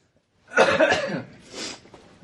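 A loud burst of coughing, a few rough hacks in quick succession, followed by a softer, shorter cough and then quiet breathing.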